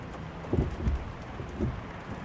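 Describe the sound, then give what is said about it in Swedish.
Steady rain patters in a dense, even hiss on a car in a city, heard from inside the car, with a few soft low thumps rising briefly above it as drops drum on the roof. No voices are heard. “Du sitter i en bil det regnar.”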